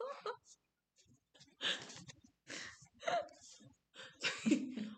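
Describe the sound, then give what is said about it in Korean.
Oversized playing cards are shuffled as ASMR in several papery, rustling bursts separated by short pauses, with a few soft vocal sounds and breaths mixed in. “아무도 카드 섞는 소리라고 생각하지 않을 것 같은데.”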